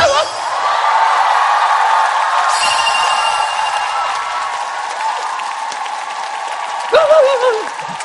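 A large studio audience of the talk show Talk To You applauds steadily for several seconds, dense clapping mixed with cheers and a few whoops, the roar staying loud throughout before a single voice cuts in near the end.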